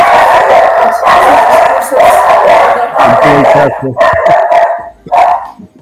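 Several dogs howl and bark together in a loud chorus, with long wavering howls running almost continuously and a few sharper barks breaking through near the end before it trails off.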